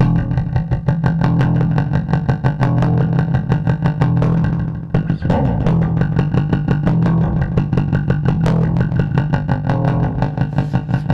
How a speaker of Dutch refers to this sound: Gaan we de live versie beluisteren? Kies maar, ja. Ik, ja, ik wil ze zeker graag horen.